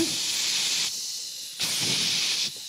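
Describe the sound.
A voice imitates an aerosol air freshener spray with two bright, steady hissing bursts, each under a second long, separated by a short pause.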